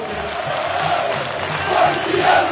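Corinthians football supporters chant the club's cry about being 'maloqueiro e sofredor' together, a dense roar of many voices rising and swelling in loud waves, with rhythmic pulses underneath and no single speaker standing out.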